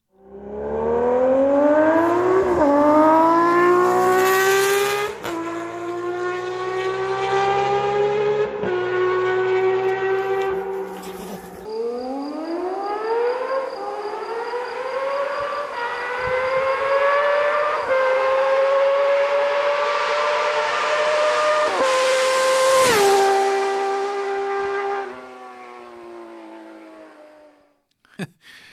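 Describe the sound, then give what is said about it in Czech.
A six-cylinder Honda CB1000 motorcycle engine screams loudly up through the gears, its smooth, high wail climbing in pitch and dropping back with each of several shifts, sustained, with no one talking. “Když chcete evokovat zvuk šestiválce, tak to umí prostě jenom šestiválec.”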